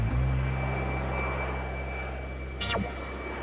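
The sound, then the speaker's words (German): An airplane drones steadily overhead with a low, continuous engine rumble and a faint high whine, holding at a moderate level throughout with no voices. “Denn es ist das Sicherste, wenn am Flughafen auch nur die Flugzeuge fliegen.”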